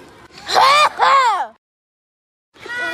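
A child coughs loudly and close by, two harsh voiced bursts in quick succession, then a brief silence before another cough begins.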